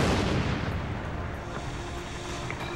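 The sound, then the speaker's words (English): Loud, continuous cinematic explosions rumble and crackle with heavy low-end booms, like a barrage of blasts rolling together for a few seconds with no voices. “Much better explosions than your last one.”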